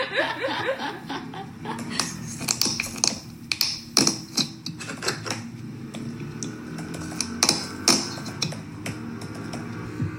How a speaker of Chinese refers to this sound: 至于啪嗒啪嗒啪嗒的声音，对不起，我是在记录挤颜料的时间，是我自己用电脑在打字。